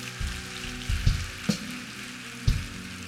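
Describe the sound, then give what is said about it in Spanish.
An audience applauds God, a dense, steady wash of clapping with a few sharper bursts standing out, lasting the whole moment with no one speaking over it. “Dale un aplauso a Dios si lo crees.”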